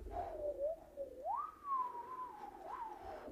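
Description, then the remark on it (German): A voice imitates a whistling wind, a single sustained tonal whistle that wavers and glides up and down in pitch for a few seconds, moderately loud, with no talking. “Hm, da hört man so den Wind pfeifen.”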